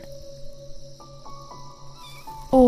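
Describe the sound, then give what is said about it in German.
A steady outdoor backdrop of chirping insects and soft rhythmic pulses, then a sudden loud kitten meow bursts in right at the end as the kitten is played with using a long, thin twig. “Du nimmst einen langen, dünnen Zweig vom Boden und fängst an, mit der kleinen Katze zu spielen”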